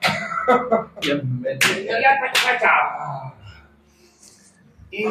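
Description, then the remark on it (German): Several sharp, irregular smacks of people slapping each other's faces in a pre-stage ritual before going on stage, each met by loud pained yelps and cries from a few voices, then a quieter pause before one last smack. “Wir klatschen uns alle ab, immer ins Gesicht.”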